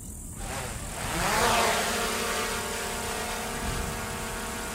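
A steady, fairly loud mechanical whir of a drone's small propellers, swelling briefly as it passes, then holding a constant buzzing drone with no voices present. The drone, bought from the USA, is used to search for human remains.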